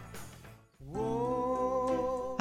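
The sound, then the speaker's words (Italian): The ringing tone of an outgoing mobile phone call: a steady, buzzy electronic tone that starts after a brief scuffle of noise and holds continuously and fairly loud until the end, with no voices. “Eh, squilla.”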